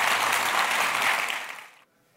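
thunderous audience applause

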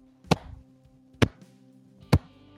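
slow clapping

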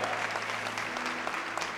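audience applauding

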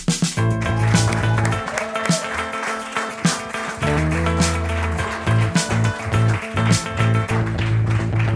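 audience applause

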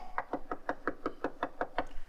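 knocking

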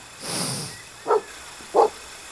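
dogs barking

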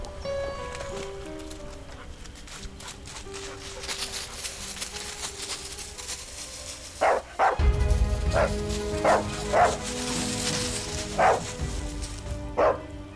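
search dog barking

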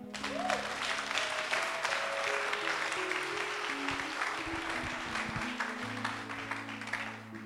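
audience cheering and applauding

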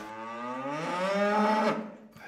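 cow mooing

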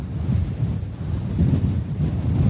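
strong wind blowing

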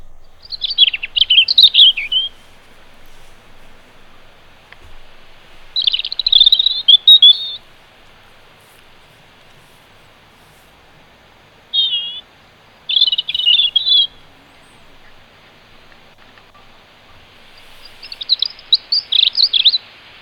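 robin singing

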